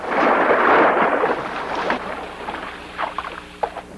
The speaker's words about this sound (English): We took a large uh, Coke bottle and we shook it up real good, threw it out on the cement and it goes shh. put that and a zipper and a little bit of water, and you've got the shark coming out.